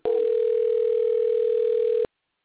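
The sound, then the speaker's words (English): One steady telephone ringback tone from an unanswered call hums for about two seconds, then cuts off into silence. It is clear, even in volume and heard alone with no voices. “Well, you know, I, I hear the ringing because yes, I was trying”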